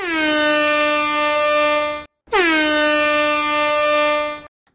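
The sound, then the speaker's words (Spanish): Two long, loud horn honks, each lasting about two seconds with a short gap between them, a steady brassy blare like an air horn, with no voices. “¿Estás feliz como una perdiz o más bien tocando la bocina como una gallina?”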